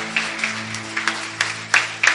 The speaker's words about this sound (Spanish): Porque ya sé que ya aplaudieron, pero vamos a darle un aplauso al Señor como Él lo merece, como Él es digno.